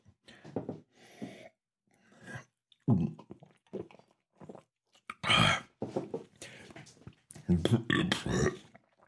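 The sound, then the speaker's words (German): A loud, rough burp from a person who has just drunk beer erupts partway through, among bursts of talking and a few shorter throaty grunts. “Also, wenn es schmeckt, wenn schmeckt, dann muss man rülpsen, das ist doch klar, ne?”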